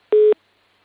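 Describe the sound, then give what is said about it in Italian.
A single short beep of a telephone busy tone from a dropped call: one steady, mid-pitched electronic tone lasting a fraction of a second, followed by silence, with no voices. “Sì, io sì, sent- forse è caduto okay”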